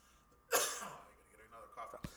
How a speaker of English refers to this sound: That cough just kills.